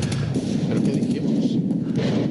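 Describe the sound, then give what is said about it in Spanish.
A loud, dense barrage of gunfire crackles nonstop for a couple of seconds, with sharp reports blurring into a rumbling, booming roar like a battle sound effect. “disparan.”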